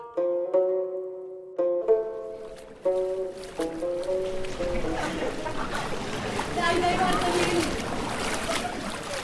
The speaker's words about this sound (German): Es ist nass in Venedig. Sehr nass sogar. Das Wasser rauscht nicht nur vom Himmel, es quillt auch von unten aus den Gulis. Regen und Aqua Alta verwandeln den Markusplatz, die tiefste Stelle der Stadt, in einen See,